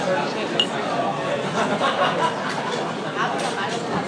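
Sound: glasses clinking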